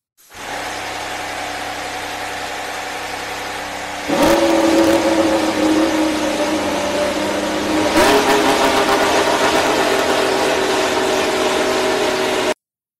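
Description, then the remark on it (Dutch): An Aston Martin AMR22 Formula 1 car, using the same engine as the Mercedes, fires up and runs, its loud high-pitched drone stepping up sharply in revs twice as it is blipped, holding a steady buzzing roar throughout with no voices. “Ja, eerder hadden we al eh, een uh, fire-up gehoord. Eh, die klonk als volgt.”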